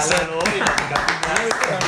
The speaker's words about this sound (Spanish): No manches, un aplauso. O sea, imagínate.